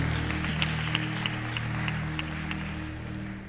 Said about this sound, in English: Clap for him. Clap for him. I'm coming to my Bible. I'm, I'm hot. clap for oh, clap for the screen man.